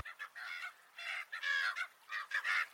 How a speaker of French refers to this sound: On vient d'entendre des cris qui sont des cris de goéland, un oiseau marin, euh, mais ça fait partie de ces espèces dites plastiques.